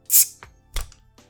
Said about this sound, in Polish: Ty, ale ja otwieram. Co otwierasz? Ja otwieram butelkę.